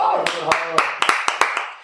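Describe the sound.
Audience applause comes through as a handful of sharp, separate claps at an uneven pace, heard over a steady voice talking underneath.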